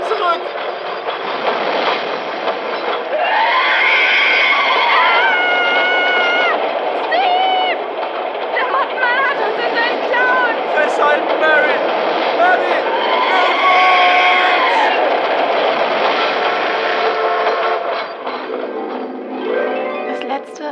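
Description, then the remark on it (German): A loud, continuous roar of a train rushing past on the tracks for about twenty seconds, with shrill metallic squeals and tonal whines rising and falling over the rumble. “Der Zug ist fast da. Pass auf! Dieses Ding kommt.”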